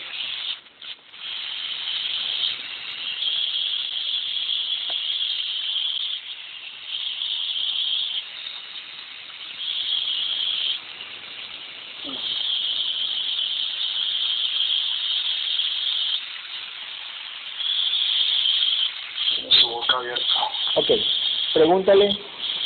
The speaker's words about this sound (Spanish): pregúntale, a la serpiente si puede, si puede quitar esa interferencia, esa interferencia en la llamada.